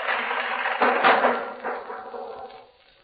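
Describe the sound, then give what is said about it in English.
A door being broken in: a few heavy, loud crashing impacts over a rough, noisy wash of splintering, building to a peak and then fading away. No voices. “Break in the door.”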